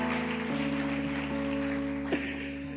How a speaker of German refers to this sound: Und ich würde mal sagen, lass uns Daniel und dem ganzen Team einen fetten Applaus geben.